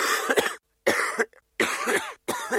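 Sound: person coughing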